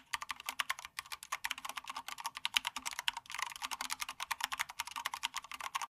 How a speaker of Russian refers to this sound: Механика дороже, но печатать и играть на ней намного удобнее из-за четкой обратной связи. Клавиши нажимаются с характерным для печатной машинки звуком. Их отличает четкий и, как правило, большой ход.